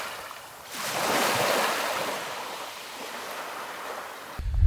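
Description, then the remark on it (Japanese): Ocean waves wash onto the shore in a broad, steady rush of surf, swelling and receding, with some wind noise and no voices. “相変わらず海が綺麗すぎるなんじゃこりゃ”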